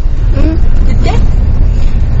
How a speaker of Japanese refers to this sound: それで今ここで子どもたちが一生懸命何か子どもたち何人20人連れてったんですけれども、えー、子どもたちが今帰りのバスの中で楽しんでいます